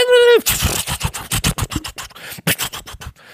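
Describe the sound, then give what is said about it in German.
A short steady tone gives way to a rapid, rhythmic flurry of rustling wing flaps from a flock of about 100 ravens flying, loud and busy for about three seconds. “Das ist so, wie sie Rahmen halt anhören, wenn sie fliegen.”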